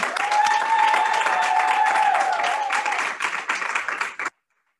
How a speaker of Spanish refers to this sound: y tenemos también presente a parte de la congregación de Iglesia de Cantares, así que si quieren dar un aplauso para dar saber que estamos aquí.